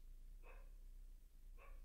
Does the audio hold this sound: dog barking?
yes